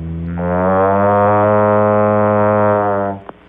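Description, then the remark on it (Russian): The Voder speech synthesizer, worked by an operator, imitates a cow's moo: one long, loud, buzzy electronic drone holding a steady pitch for about three seconds, then cutting off abruptly with a small click. “А может ли водор имитировать звуки животных? Да, конечно. Вот как звучит корова.”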